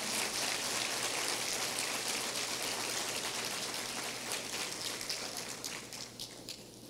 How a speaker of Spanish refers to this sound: Dale un aplauso a Él.